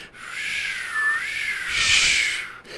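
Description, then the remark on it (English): A voice imitates whistling wind on Mars, producing a breathy, wavering hiss with a thin tone that rises and falls, swelling louder near the end before cutting off. Alone, lasting a few seconds. “It's a bunch of wind.”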